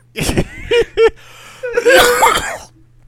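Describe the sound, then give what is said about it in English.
A loud coughing fit: a few sharp coughs in quick succession, then a longer, raspier bout of hacking and throat clearing before it trails off into quiet. “So funny it made us uh. cough. We're leaving that in.”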